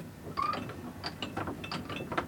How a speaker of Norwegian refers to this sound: Han tar tak i det store roret av tre på seilskuta